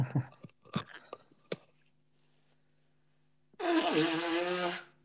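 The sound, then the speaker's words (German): A few soft rustles and taps, a pause, then one loud, rough nose blow lasting over a second, a noisy honk with a buzzing tonal edge. No talking. “Also ich muss, muss mir jetzt mal schnell die Nase putzen und ich will euch hier nicht ins Mikrofon äh, röcheln.”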